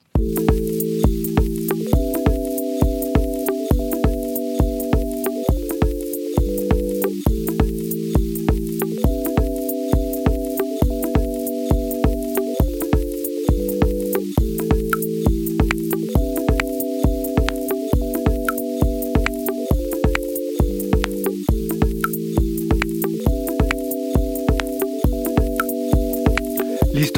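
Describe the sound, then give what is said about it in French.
An electronic music track by an English electronic music duo plays: a looping progression of sustained synth chords over a steady, driving beat with crisp hi-hat ticks, loud and continuous with no voices. “c'est un duo de musique électronique anglaise”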